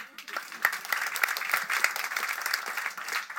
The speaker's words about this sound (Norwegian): Applaus til det, syns jeg.